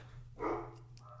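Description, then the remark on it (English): A single short dog bark over a steady low hum, followed by a fainter, briefer yelp-like sound near the end, from a mix of two dogs. No one speaks. “Hold on, I got got doggos barking.”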